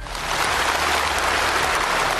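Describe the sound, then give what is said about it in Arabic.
Warm, sustained applause from a large crowd in the conference hall of the Chinese Communist Party congress in October 2022, after Xi Jinping said Taiwan will return to China; a dense steady wash of many hands clapping at even loudness throughout, with no voices standing out. “وسط تصفيق حار في قاعة المؤتمر”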